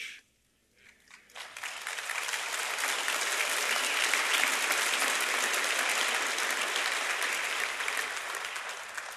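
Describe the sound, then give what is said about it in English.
A large crowd breaks into sustained applause during a church sermon after a brief near-silent pause, the dense clapping swelling quickly and holding steady, loud and full, for several seconds without any talking. “I don't usually get applause, so I'm going to quit while I'm ahead.”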